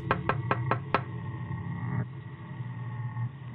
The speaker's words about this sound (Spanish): Creí que todo había terminado esa noche, pero para mi desgracia, durante los dos siguientes días escuché cómo tocaban a mi ventana de nuevo. Por miedo no volteaba a ver.